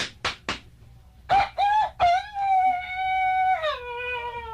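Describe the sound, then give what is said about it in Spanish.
A rooster crows loudly, a long stretched cock-a-doodle-doo that holds then drops at the end, preceded by a few sharp clucks and short calls. “Qué odio gallo más inteligente, canta cuando le dicen.”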